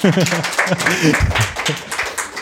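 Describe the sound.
A crowd claps in a steady, dense patter for a couple of seconds while voices cheer and talk over it, the applause staying fairly loud throughout.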